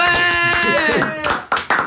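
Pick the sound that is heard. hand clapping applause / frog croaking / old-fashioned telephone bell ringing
hand clapping applause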